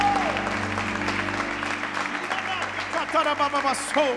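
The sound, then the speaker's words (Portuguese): An audience applauds the Lord in worship, a dense wash of clapping over a sustained musical tone; near the end a voice calls out with rising and falling pitch above the clapping. “Aplauda o Senhor, adore.”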